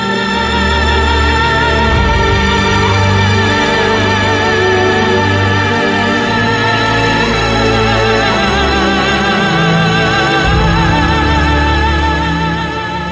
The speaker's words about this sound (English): Anywho, the first two minutes of the theme song I said are the sounds of Afro pessimism, it sounds like this.